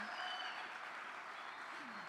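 Steady applause from the men in an audience for the women standing on International Women's Day, a dense even patter of many hands clapping at a constant loudness for a couple of seconds, with faint voices mixed in underneath.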